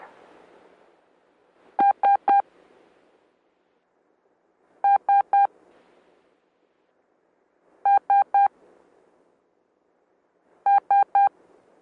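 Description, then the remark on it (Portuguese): The Morse code letter S sounds four times, each a quick burst of three short, clear electronic beeps, separated by pauses of faint background hiss. “Temos a, a letra S de Santiago, três sons curtos.”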